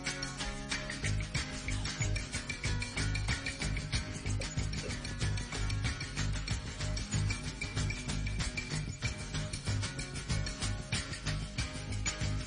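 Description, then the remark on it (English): A recorded hippie rock song plays continuously, full and loud, with a driving steady beat and dense guitar-heavy instrumentation and no one talking over it. “Should we hear a little bit of the …? That's yeah, we can, let's hear it. It's a good hippie song.”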